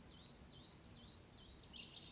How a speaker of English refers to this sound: You are back in your garden. You can hear the birds singing in the trees.